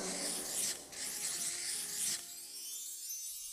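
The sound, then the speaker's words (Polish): Quick scratchy strokes of someone drawing a door on a surface, two busy bursts of rubbing, ending abruptly and leaving a faint trailing shimmer. “rysuj więc drzwi, żebyśmy mogli wrócić do domu.”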